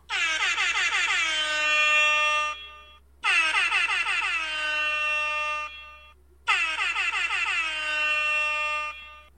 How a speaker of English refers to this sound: You are now sworn in members of the Neighborhood Watch. Let's sound those air horns to make it official.